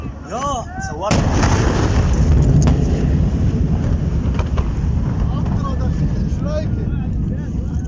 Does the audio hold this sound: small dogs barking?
no